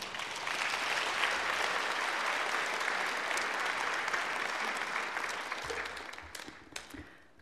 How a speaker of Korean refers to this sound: 권사님 나오실 때 박수로 환영해 주시기를 부탁을 드립니다.